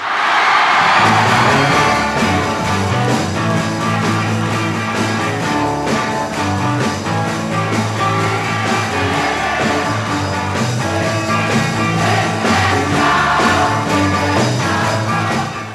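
A large crowd screams and shrieks without pause in a big, echoing hall, the shrill din nearly drowning out a band playing underneath, loud and constant throughout.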